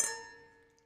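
Cups clink together once in a toast, a bright tap followed by a ringing tone that slowly fades away, with no voices.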